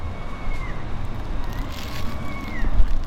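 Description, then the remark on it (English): Light rain beginning to fall in a park, a steady dense patter and crackle of drops throughout, with a faint high whistling tone gliding by twice. “Starting to rain.”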